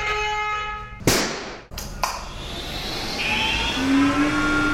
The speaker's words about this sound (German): Letzteres ist übrigens ein Frequenzumrichter aus der Papierindustrie.